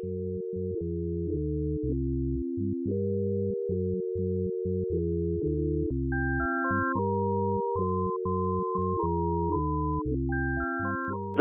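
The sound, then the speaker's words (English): Pure sine wave tones made with a sine wave generator, turned into MIDI files and played on a keyboard, step through a sequence of notes: a steady low line throughout, joined partway by a brighter higher melody. No voices, just clean, evenly held pitches. “if you just used a sine wave generator and generated those pitches, I could turn them into MIDI files for you to play on a keyboard”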